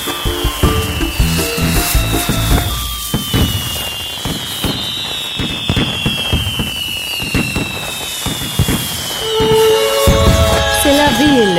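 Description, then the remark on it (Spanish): A fireworks sound effect: a rapid string of sharp pops and crackles, with whistling rockets sweeping downward in pitch. It grows louder toward the end with more whistles. “Y estos fuegos artificiales por eso son para ti.”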